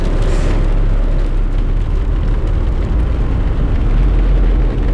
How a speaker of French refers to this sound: On entend la pluie sur la carlingue.